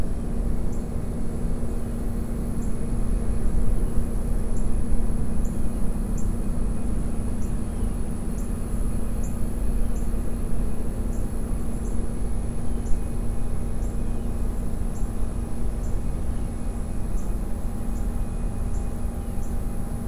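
Faint, regularly repeating insect chirps tick high above a steady, dense outdoor drone and low hum, outdoors by the water near a refinery in Africatown, continuing evenly throughout with no voices.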